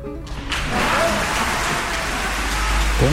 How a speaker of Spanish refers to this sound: 40 segundos de aplauso emocionado.